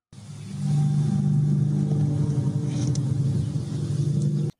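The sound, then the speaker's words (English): A recorded skyquake: a loud, deep droning rumble with a steady low hum running through it, holding for about four seconds before cutting off abruptly. No one speaks. “anyway, let's listen to what an actual skyquake looks like.”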